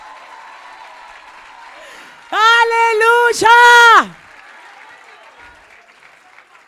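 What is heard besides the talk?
loud audience applause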